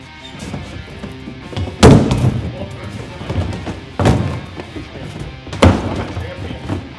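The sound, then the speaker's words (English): Giant plastic cups or buckets being quickly stacked and unstacked, as in cup stacking: three loud, hollow thuds spaced a couple of seconds apart, with softer knocks and clatter in between and faint voices in the background. “All right, fellas, you've seen cup stacking where they stack and unstack cups quickly. We're doing yes. that, but with giant cups or buckets, as, as you pointed out before, buckets.”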